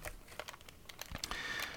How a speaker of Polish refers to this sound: w środkowej części urządzenia mamy ośmiopunktową klawiaturę. Bardzo wygodną klawiaturę, muszę powiedzieć, choć, jak słychać, bardzo mało dyskretną klawiaturę, ale wygodna ona jest niewątpliwie.